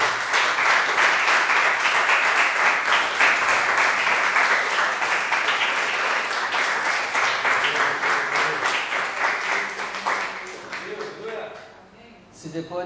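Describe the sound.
An audience at a church worship service applauds the Lord loudly and steadily in a dense wash of many hands clapping, sustained for about ten seconds before thinning out and fading, with some voices mixed in near the end.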